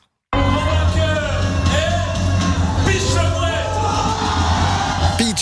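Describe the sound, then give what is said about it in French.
At a qualifying round for the world gull-cry championship in Capelle-la-Grande, France, the winning contestant loudly imitates a gull's cry, with repeated rising and falling squawking calls over a steady low hum, continuous for several seconds. “de chauffe hier avec la bande de Capelle-la-Grande avec aussi la phase qualificative pour le championnat du monde du cri de la mouette.”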